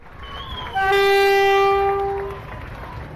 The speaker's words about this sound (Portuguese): O comboio parte de Aveiro às 13 horas e 50 minutos. O destino é Macinhata do Voga, numa viagem que convida a voltar atrás no tempo.